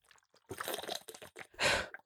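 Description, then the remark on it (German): Someone takes a sip of water: a stretch of wet slurping and gulping sounds, then a loud, breathy exhale of relief, with no talking. “Ah, ich muss mal ganz kurz einen Schluck Wasser trinken.”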